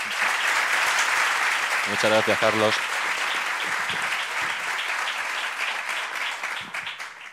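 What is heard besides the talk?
loud applause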